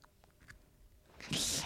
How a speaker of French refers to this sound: Minou Il est fou, il, lâche le papier, il mange le papier, il nous fait, veut montrer qu'il est là.